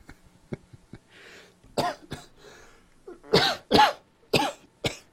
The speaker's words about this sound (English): oh, sorry to podcast land. I'm trying really hard not to cough in the mic. Yeah, you're dying. What do you got? Hay fever? What's going on, man?